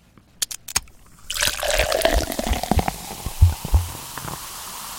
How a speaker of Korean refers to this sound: 어, 아, 시원한 소리네요. 얼음이 가득 찬 잔에 탄산음료를 칙 따가지고 이렇게 따르는 소리입니다.